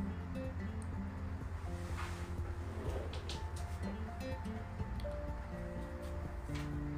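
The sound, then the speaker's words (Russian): An electric fan runs steadily on a 31-degree day, a continuous airy whoosh with a low humming undertone and no change in level, with no one speaking. “А то только вентилятор слышно, как работает.”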